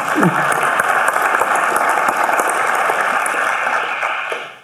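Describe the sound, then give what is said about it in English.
A crowd applauds steadily for several seconds, a dense, even wash of clapping that holds at a loud level before tapering off slightly at the end. “So if I, uh, uh we need to give you an applause as well.”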